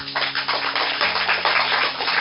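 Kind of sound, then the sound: crowd, audience applause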